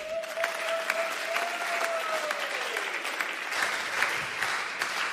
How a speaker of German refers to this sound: Danke, dass du dir die Zeit nimmst hier mit uns. Und äh, wir geben dir jetzt hier nochmal einen richtig fetten Applaus.